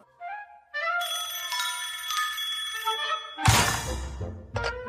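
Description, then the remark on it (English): A telephone bell rings with bright, sustained metallic tones for a few seconds. It is cut off by a sudden loud, harsh burst, followed by one more short ring. “So yeah, the whole cannon scene, uh, him answering the phone like, "Who could possibly know I'm here?"”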